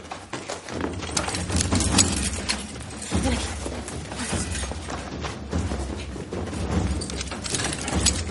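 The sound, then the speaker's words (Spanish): A foreman's keys jangle and clink repeatedly as shackles are unlocked to free slaves, with occasional metallic clanks and thuds, all set against a dense, steady background rumble with no voices. “Cogiendo las llaves del capataz, libera a Tomasín y a su madre.”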